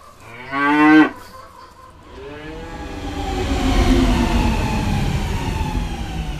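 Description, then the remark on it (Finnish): A cow lets out one loud moo lasting about half a second, followed by a low, steady rumble that gradually swells and lingers in the background. “Laidun karjakin täällä oli.”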